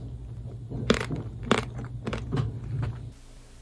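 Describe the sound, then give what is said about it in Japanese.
Loud crunching as someone bites into a hard ice cream bar with a thick chocolate coating, more than 5 millimetres thick in places, with two sharp cracks followed by several smaller crunchy chews, then quiet. “聴くがいい！ゴリッゴリのアイスバー音”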